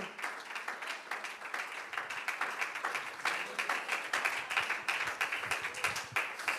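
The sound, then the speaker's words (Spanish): A crowd at a church worship service applauding the Lord together, a steady dense clatter of many hands clapping that holds at an even level throughout. “Puede usted alabar al Señor con más corazón, puede aplaudirlo por un momento más y decirle, Señor, yo hoy creo que tienes poder para liberar.”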